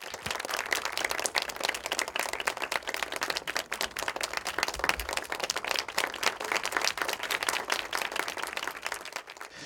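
Steady, sustained applause from a sizable audience welcoming film director Anne Fontaine and the moderator onto the stage after a trailer for her film Gemma Bovery, many hands clapping densely and evenly for the full stretch, loud with no voices breaking through.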